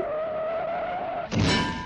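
A sustained, high-pitched tire screech as a car brakes and skids, ending abruptly in a louder, rougher burst of noise about a second in. Fairly loud, with no voices.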